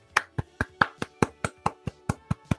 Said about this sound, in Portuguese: Já vocês já conhecem aqui no nosso podcast, mas eu peço assim, ó, uma salva de palmas